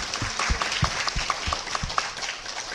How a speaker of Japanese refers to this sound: アーメン。イエス様に拍手しましょう。ハレルヤ。感謝します。